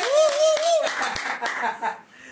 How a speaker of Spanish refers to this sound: Un aplauso, ¿no?